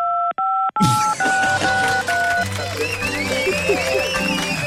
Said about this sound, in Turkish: altındaysan tuşlara bas rastgele. Biz anlarız.